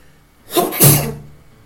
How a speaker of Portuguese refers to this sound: Caralho, saúde. Desculpa. Desculpa. Eu nem sabia que o esqueleto espirrava, mas tudo bem.